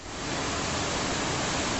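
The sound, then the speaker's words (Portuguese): Floodwater rushing out of an overflowing drainage channel between the lanes of an avenue in Belo Horizonte, a giant wave spreading water everywhere: a loud, steady roar of churning water that holds constant for a couple of seconds with no voices. “Em Belo Horizonte, a galeria entre as pistas da avenida transbordou rápido e uma onda gigante espalhou água para todo lado.”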